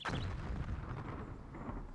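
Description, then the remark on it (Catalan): Heavy artillery shells land very near, a sharp burst at the start that rolls into a deep, sustained rumble lasting the whole moment, with no voices. “Quan hem acabat, ens hem tirat a fer la migdiada, però tres canonades que han caigut molt a prop de nosaltres ens han despertat.”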